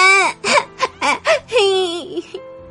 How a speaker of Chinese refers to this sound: 马克思抽泣着，把自己流鼻涕的鼻子往姐姐身上蹭。